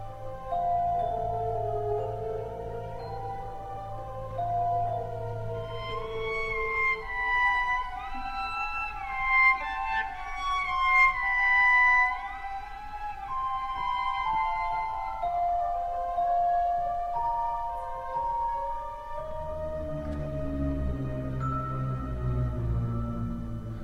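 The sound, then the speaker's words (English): A solo cello plays its earlier 4/4 theme entirely in harmonics, a slow, ghostly high melody echoed by light chiming celesta notes over soft sustained low strings, in a quiet, atmospheric passage from a cello concerto; no voices. “The cello returns to his 4 4 theme that we heard before the the resign theme, but he plays it all in harmonics, an extraordinary sound like this ghostly voice.”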